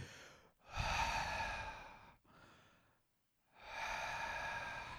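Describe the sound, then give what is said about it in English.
A voice imitates a cockroach's slow, sinister breathing: three long, loud breaths with a raspy, hissing texture and short silent gaps between them. “So I'm like, nah, I'm just gonna do normal breathing. I'm gonna go for a more sinister breathing pattern.”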